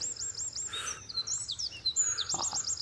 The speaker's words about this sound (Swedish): vacker fågelsång.